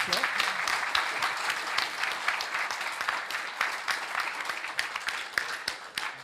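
Sustained audience applause, a dense steady patter of many hands clapping at an even level for several seconds, with no one speaking over it.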